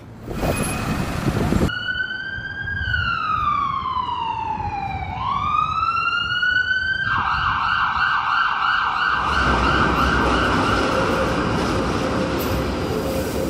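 A loud emergency siren wails in London, its pitch sliding down and then climbing back up, then holding a steady tone over a constant rumble of city traffic.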